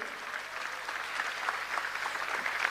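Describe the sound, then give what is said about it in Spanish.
An audience applauding the Lord during a sermon, steady dense clapping from many hands at a fairly even level, slightly swelling toward the end, with no voices standing out. “Yo quiero oír un aplauso al Señor más fuerte.”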